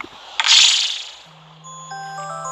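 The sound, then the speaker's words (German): A short rattling, hissy burst gives way to a phone reminder alarm starting up, which has already rung three times that day, its steady electronic tones moderately loud, with no one speaking. “Das ist mein Wecker für Podcast.”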